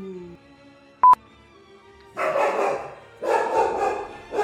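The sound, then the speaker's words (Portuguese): A short electronic beep sounds, then a female dog that has just woken up barks in two loud bursts of rapid barks separated by a brief pause, with no talking. “Até acordou a cachorra aí.”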